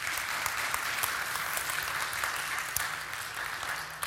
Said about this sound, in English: She deserves that applause. She does.